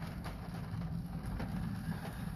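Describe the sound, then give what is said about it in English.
Steady rainfall hisses throughout on a dark, stormy night at a cemetery in Vernon County, Missouri, with a deep, continuous rumble of thunder rolling underneath. The sound is fairly soft and even, with no voices. “I do hope that you can hear what I'm hearing with the thunder and the rain.”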